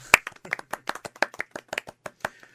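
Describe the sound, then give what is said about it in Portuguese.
A short burst of applause welcoming a new sports commentator on a show: sharp, crisp hand claps in a quick, slightly uneven rhythm, about fifteen in under three seconds, moderately loud and with no talking. “Eu acho que merece uma salva de palmas.”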